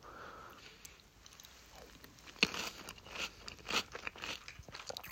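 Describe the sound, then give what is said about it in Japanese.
Quiet crunching and chewing of crisp rice crackers (senbei), with a few sharper bites and steady munching, plus some soft breathing through the nose. No one speaks. “せんべい食っててもいいんだよ”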